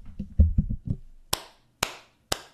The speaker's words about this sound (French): applaudissons. Oui, applaudissons. Applaudissons la Banque centrale. Applaudissons la Banque centrale.